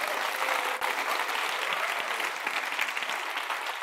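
An audience claps steadily, a dense wash of many hands at a fairly even loudness for a few seconds, with no voices standing out.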